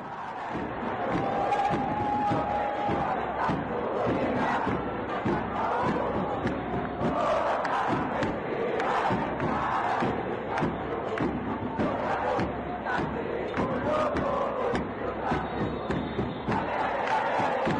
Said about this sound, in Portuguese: Vamos ouvir a torcida do América de cara, então, eh, questionando o periodismo colombiano.